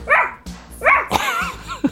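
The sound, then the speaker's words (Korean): A 10-year-old child practising animal sounds imitates a small dog barking and yipping, several short high-pitched barks in quick bursts, fairly loud, with a brief whimpering note at the end. “요즘 강아지와 고양이 소리 연습을 하고 있어.”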